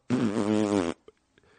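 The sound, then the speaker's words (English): One loud, drawn-out fart with a buzzing, wavering tone lasting nearly a second, then a couple of faint small noises. “Oh, he farted!”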